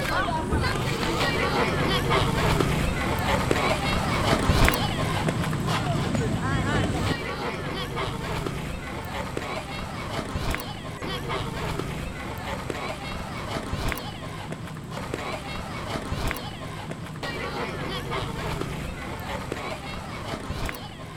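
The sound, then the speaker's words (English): Children push a rolling tire along with a plastic bottle, producing a steady scraping rattle and occasional knocks over a busy outdoor background of chattering voices and running feet. “Do you know the sound of that game when they are pushing the tire with a plastic bottle?”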